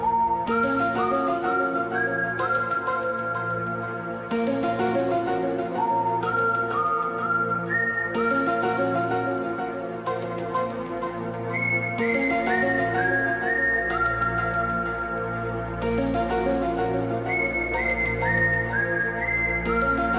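The X-Files TV theme music plays: a whistled melody of slow, stepped high notes that repeats over sustained synth chords and a deep, droning bass. It stays steady and loud throughout, with no voices.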